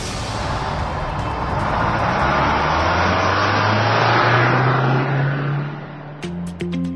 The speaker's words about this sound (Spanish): Ha llegado el momento de encender motores.